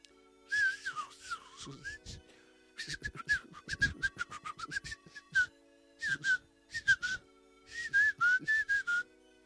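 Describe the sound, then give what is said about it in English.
A person whistles a series of short, bird-like phrases with warbling, sliding notes, fairly loud, pausing briefly between bursts as if trading calls. “If you know how to whistle pretty well, you can basically have rap battles with birds in the woods.”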